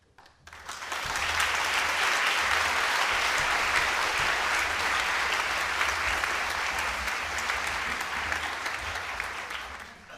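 Sustained audience applause, a dense, steady wash of many hands clapping that swells in after a second and holds at full strength for about nine seconds, easing slightly toward the end.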